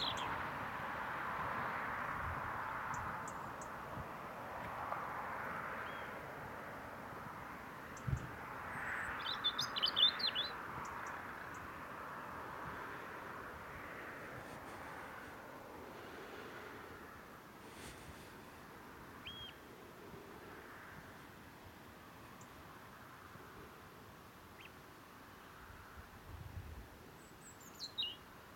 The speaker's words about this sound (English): Yes, I can see that robin now. I'm going to get a little bit closer and try and record him. And I will be quiet.